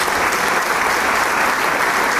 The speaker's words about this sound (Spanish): Los músicos empiezan a aplaudir también y a saludarse entre ellos.